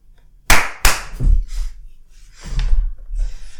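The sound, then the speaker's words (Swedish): A short, loud percussive jingle: two sharp clap-like hits in quick succession, then a run of noisy, breathy bursts with no talking. “Jingel.”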